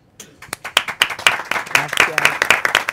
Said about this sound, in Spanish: Un fuerte aplauso.